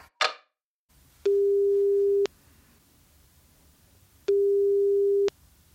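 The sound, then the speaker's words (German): After a brief opening click, a phone line rings out with two long, steady single-pitch tones, each about a second, separated by a pause, clear and fairly loud over a quiet line hiss. “Und jetzt gleich bei euch am Telefon.”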